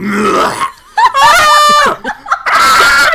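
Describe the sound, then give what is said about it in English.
A voice lets out a loud, strained, screaming cry of about a second as a vocal Foley effect for a character's scream in a tabletop role-playing game, framed by other harsh, gravelly vocal noises before and after. “Iker just ran up with Hengrin, trampled someone, and then screamed so loud that all of them exploded.”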